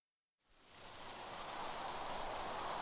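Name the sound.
rain and wind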